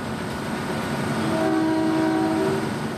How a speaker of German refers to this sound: Der Zug hält in Gerantut.